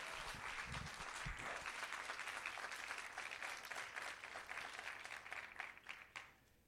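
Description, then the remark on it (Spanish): A church audience bursts into loud, sustained applause for Jesus, a dense wash of many hands clapping at once that holds steady for several seconds before thinning and fading out at the end. “Alguien den un aplauso fuerte a Jesús.”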